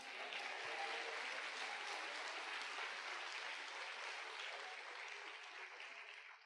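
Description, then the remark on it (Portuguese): An audience bursts into steady, dense applause for Jesus, many hands clapping together in a continuous roar that holds strong for several seconds before easing slightly at the end, with no voices over it. “Pode aplaudir a Jesus.”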